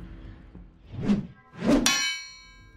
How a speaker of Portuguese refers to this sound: O cara sabe trabalhar com a, com a bigorna ali, o martelinho, para poder forjar armas.